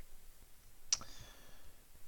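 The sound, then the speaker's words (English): A single crisp computer mouse click on a tab lands about midway through, with a faint brief ring after it, set against quiet background hiss and no talking. “Let me I keep clicking on the wrong tabs.”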